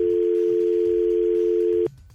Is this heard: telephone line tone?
yes